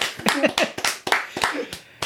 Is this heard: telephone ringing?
no